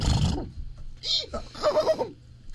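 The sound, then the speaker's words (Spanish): A horse whinnies: a short rising-and-falling call followed by a quick, quavering series of pulses, fairly loud, lasting about two seconds after a brief burst of noise. “Claro, es un caballo, pero de la, coyuntura.”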